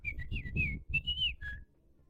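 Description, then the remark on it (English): A person whistles an imitation of finch chirping, voicing a finch named Velveeta: a quick run of about six high, warbling notes that slide up and down, with a low rumbling murmur underneath, ending after roughly two seconds. “For those of you who don't speak Finch, Velveeta has just informed us that a new president has been elected in the bird community.”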